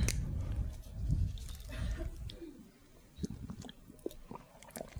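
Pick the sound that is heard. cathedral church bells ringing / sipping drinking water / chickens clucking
sipping drinking water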